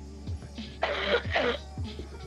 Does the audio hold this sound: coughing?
yes